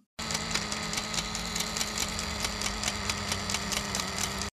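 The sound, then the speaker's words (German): A spinning wheel whirs steadily as straw is spun, with a low mechanical drone and a quick, even clicking rhythm, continuous and fairly loud, with no voices. “Das Männchen nahm den Ring, fing wieder an zu schnurren mit dem Rade und hatte bis zum Morgen alles Stroh zu glänzendem Gold gesponnen.”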